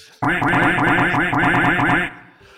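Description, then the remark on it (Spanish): A loud, dense burst of repeated duck quacks, many overlapping in a rapid, steady rhythm for about two seconds before cutting off abruptly. “Lluvia de patos.”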